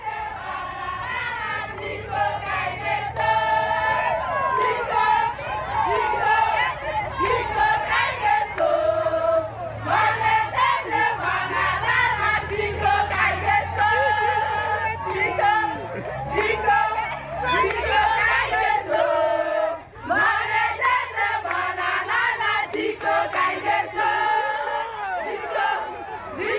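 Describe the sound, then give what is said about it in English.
A large crowd of women in the town of Enugu, Nigeria, celebrates the opening of a new maternity center built by GEANCO, loudly and continuously, many voices overlapping in spirited calls and chant-like singing, steady throughout, with no single speaker standing out. “What you hear is the sound of women in the town of Enugu celebrating the opening of a new maternity center that GEANCO built so that they can receive the high quality care they”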